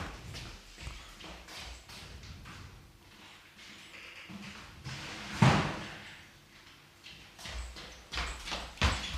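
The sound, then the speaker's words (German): A door being opened and held open, with scattered clunks and shuffling footsteps around it, one sharper knock midway, and more handling clatter toward the end. No one speaks. “So, ich habe jetzt mal die Tür offen gehalten, damit ich von da zur Küche rüberschauen kann.”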